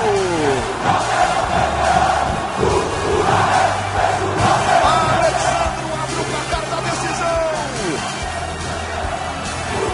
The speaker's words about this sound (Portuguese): a festa torcida do Vasco.